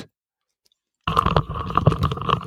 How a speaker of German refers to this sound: Gut, das war Staubsauger. Ah, es war Staubsauger.